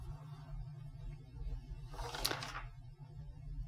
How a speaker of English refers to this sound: That was the sound of me turning in my notes like a champion um, because paper.